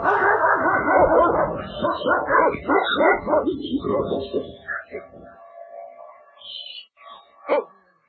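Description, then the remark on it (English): A dog barks in a rapid, overlapping flurry for several seconds, loud, then tapers into a few scattered yips and whimpers with short pauses between them. “Oh, a dog. A dog. Someone help the dog.”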